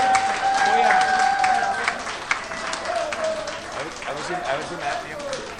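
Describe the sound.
A crowd applauds steadily for several seconds, dense clapping that stays fairly loud throughout, with voices and cheering mixed in and a faint whistle-like tone above.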